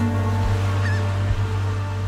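Ocean waves wash steadily against the coast of Portugal below a cliff along a fisherman's trail at sunset, in a continuous, fairly loud roar with a deep low rumble underneath and a brief high chirp midway. No one speaks.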